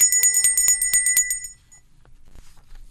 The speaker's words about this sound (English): I'm guessing Zelensky is next going to resort to setting up a fake Salvation Army kettle and ringing a bell to raise cash.